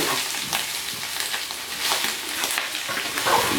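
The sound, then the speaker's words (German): Steady crackling and sizzling of meat, vegetables and rice frying in a pan as they are stirred, with brief scraping stir sounds now and then, continuous with no voices. “Ja, dann rühre ich das hier einmal um, man hört knistern.”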